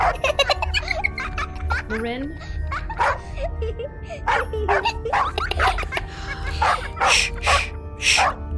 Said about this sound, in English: Standing in the entry to her quarters was Lieutenant James and his small, white dog with a big brown spot on her side. The rude little beast continued barking as the children's giggles grew increasingly louder.